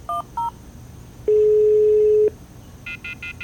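Two quick telephone keypad beeps as someone dials a phone call, then a steady one-second phone tone, followed by a rapid run of four short, higher beeps. Clear, with no talking.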